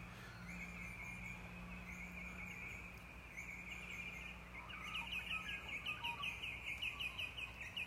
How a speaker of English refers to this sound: Oh, listen to the bird song. Let's listen to this just for a minute, then I'll go back in. Ready?